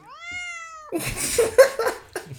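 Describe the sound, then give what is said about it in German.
A person imitates the honk of car drivers' horns with a single sustained, nasal honk lasting about a second, followed by loud, noisy bursts of breathy commotion. “Und wenn die, wenn die Autofahrer hupen, machen die so.”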